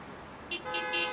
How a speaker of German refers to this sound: Jetzt ist grün. Jetzt ist grün, jetzt wird gehupt. Ja, der hupt auch nochmal.